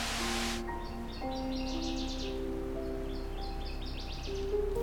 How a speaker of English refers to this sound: Nevertheless, I'm finding species such as this northern water thrush, who likely arrived a week or two ago to much warmer weather, singing in spite of the chilly air.